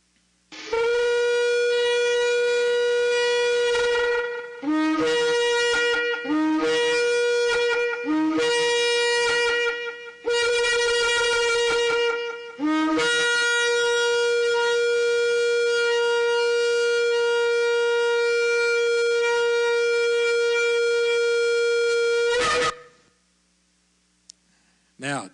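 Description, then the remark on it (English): A shofar sounds loud and alone, playing the tekiah, shevarim, teruah and tekiah gedolah calls: a long single blast, three short broken blasts, several short blasts in quick succession, then one very long sustained blast at the end. “we had the long single blast, then we had the three short, then we had several short blasts”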